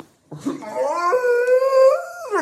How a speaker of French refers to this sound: J'emmène Snoopy. Elle nous protégera en cas de danger. T'es sûr Non, parce que c'est le chien le plus peuré de la Terre. Elle est pire que Scooby-Doo.